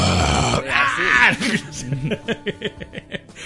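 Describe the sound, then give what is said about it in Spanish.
A person imitates a growling video game alien: a low, raspy drawn-out groan followed by a quick series of rhythmic guttural pulses, fairly loud, with no other talk. “se veía así a lo lejos los, aliens, viste, que iban caminando”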